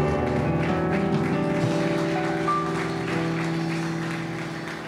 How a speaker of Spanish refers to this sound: les ofrenda de aplauso al Señor.